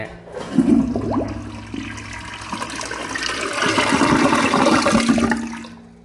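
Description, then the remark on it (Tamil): A Cera brand toilet flushes, a loud rushing surge of water that swirls and gurgles for several seconds before draining away. No one speaks. “இந்த க்ளோசெட்டோட ப்ராண்ட் என்னென்னா செரா செரா க்ளோசெட் இப்போ இதோட ஃப்ரெஷ் சவுண்டு கேட்க போகிறீங்க”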